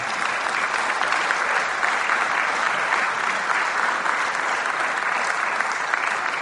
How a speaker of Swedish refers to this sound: Jag tycker innan vi går in i detta så tycker jag vi ska ge dem en välkomstapplåd och säga att det är roligt att ni är här.